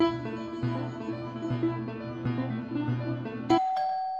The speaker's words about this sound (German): An der Wohnungstür klingelt es. Durch den schmalen Flur sehe ich meine Freundin die Tür öffnen.